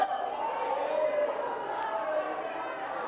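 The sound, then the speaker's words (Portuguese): A church audience shouting all at once, a dense, steady roar of many overlapping voices with no single speaker standing out, holding loud and even for the whole stretch. “Ah, mas esse povo gritando, meu Deus do céu, esse povo é doido, sim.”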